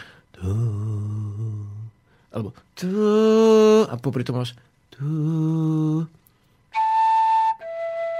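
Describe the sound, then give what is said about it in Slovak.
Several sustained blown tones from a wind instrument, each rich with faint overtones, followed by two higher, purer notes. Brief speech is heard between the tones. “Vieš, a ono sa to nezdá, ale keď fúkneš do jedného tónu, tak je tam jemne, jemne ešte počuť druhý tón.”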